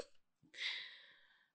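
A single sneeze: a quick breathy intake, then a sharp, hissy burst that trails off over about a second. It sounds fairly soft, with no talking.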